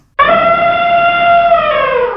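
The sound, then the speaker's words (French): A single loud, brassy elephant trumpet bursts in abruptly and blares for about two seconds, its pitch sagging slightly before it fades. No voices are heard. “Au secours Ce sont des éléphants”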